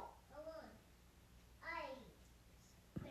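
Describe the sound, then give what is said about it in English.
Two short bursts of a young child's high-pitched vocalizing, with a quiet pause between them and a brief tap near the end. “Y'all, hold on. I'm listening to y'all's kids.”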